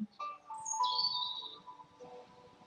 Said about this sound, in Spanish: La canción también es de pájaros, fíjate, oye.